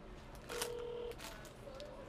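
A telephone ringback tone sounds on an outgoing call: one steady electronic tone lasting about half a second, then a shorter, higher tone, fairly quiet over faint background noise.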